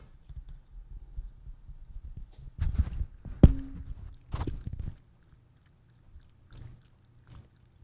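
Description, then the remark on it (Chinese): A dog laps up water from a freshly poured cup in quick, rhythmic wet clicks, coming in two or three short bursts with brief pauses between, then fading to a few faint laps. “各位观众，现在这个是宝宝在喝水的声音。”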